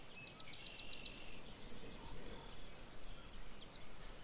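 Insects chirp in a quick, regular series of high pulses at first, then give shorter, fainter trills later, all over a soft outdoor background hiss with no voices.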